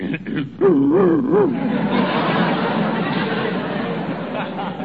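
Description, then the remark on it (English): A man growls low in his throat, a wavering, rumbling sound much like a dog's, over a steady wash of noisy background chatter. “When I worry about a case, I get a catch in my throat.”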